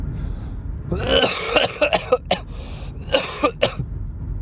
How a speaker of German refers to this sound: Ja, und jetzt, äh, jetzt, wo ich die Erkältung habe und beim Husten merke, wie mir echt die Lunge brennt,